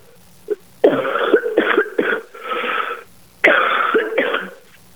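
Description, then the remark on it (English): Loud bouts of harsh coughing and throat clearing: a rapid cluster of hacking coughs, a brief pause, then another shorter fit, with no talking. “our, our, listening area of over potentially two and a half million people, I bet about half of them are feeling coughing right along with yeah, you.”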